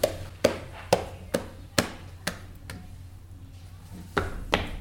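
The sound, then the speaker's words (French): Foley footsteps of a man walking on a beach, crunching on sand, about seven steady, evenly spaced steps, a brief pause, then two more, over a low continuous rumble of the sea. “Et après, on va comprendre qu'il marche par ce qu'on appelle le bruitage, parce que par-dessus tout ce bruit de la mer, tout d'un coup, on va entendre.”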